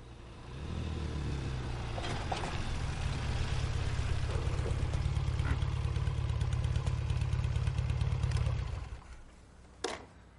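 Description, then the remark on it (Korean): A motorcycle engine cranks to life and settles into a steady, loud, throbbing idle for several seconds before cutting off, followed by a brief sharp click. “이제는 그야말로 절망 끝에서 오토바이 시동을 건 한 남자 이야기입니다.”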